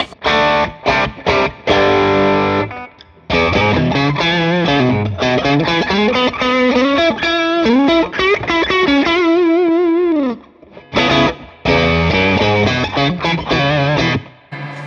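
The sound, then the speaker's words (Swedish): An overdriven electric guitar played through a Tube Screamer overdrive pedal plays a loud, fuzzy riff of chords and bending lead lines, pausing briefly twice before continuing; no one speaks over it. “Ehm, det var Tube Screamen.”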